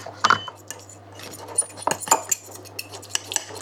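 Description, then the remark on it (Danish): A metal fork scrapes and clinks against the side of a pot, stirring a thick cheese cream thinned with pasta cooking water for spaghetti, in irregular taps, with a low steady hum underneath and no talking. “Jeg bruger en gaffel til det her.”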